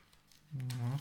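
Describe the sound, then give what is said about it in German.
Soft papery rustling and crinkling of Bible pages being turned to find a passage in the Gospel of John, faint, followed by a man starting to speak over the last of the rustle. “Das Umblättern ist schwer.”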